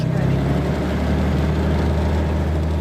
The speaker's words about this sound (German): Das Flugzeug rast los und wenige Sekunden später hebt die Cessna ab und schwebt schwerelos über dem Mississippi-Delta von Louisiana.